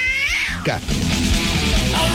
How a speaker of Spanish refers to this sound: Los arañazos y ronroneos